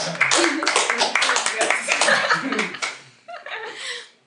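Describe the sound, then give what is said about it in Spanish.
A few seconds of scattered hand clapping, loud and crackly, mixed with laughter and voices, then tapering into a short burst of talk and chuckling. “Un aplauso para ella.”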